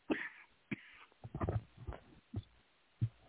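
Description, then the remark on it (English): A run of short, harsh coughs from a person with a persistent cough, about five or six bursts in a ragged, uneven rhythm over a few seconds, moderately loud, with no talking. “Yeah, I just Cali- got this permanent cough.”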